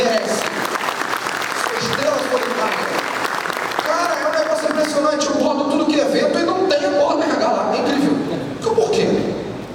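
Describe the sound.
An audience claps steadily for several seconds, dense, applauding a woman from HR in the audience, while voices talk and call out over the applause.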